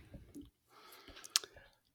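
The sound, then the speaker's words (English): Quiet sipping of water: soft wet mouth noises and a swallow, with one sharp little click near the end and no talking. “Uh, uh, I had to take a sip of water.”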